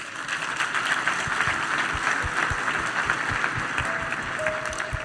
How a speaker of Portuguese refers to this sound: Uma salva de palmas para a nossa irmã.